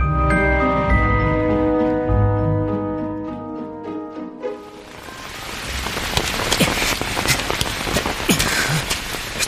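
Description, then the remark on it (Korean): Sustained tonal music fades out halfway, and steady rain takes over, a dense hiss of drops pattering on a surface that continues to the end. “체력을 아끼려면 빨리 걸어야 하는데 비가 오니까 훨씬 다리가 무거워.”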